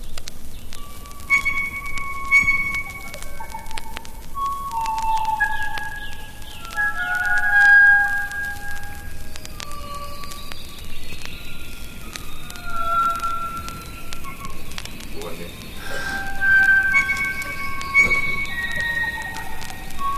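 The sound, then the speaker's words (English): A North Island blue wattled crow (kokako) calling: a slow, unhurried series of rich, sustained organ-like and bell-like notes at shifting pitches, sounding alone over a steady low background hiss. “Its delightful call includes a variety of rich organ and bell-like notes.”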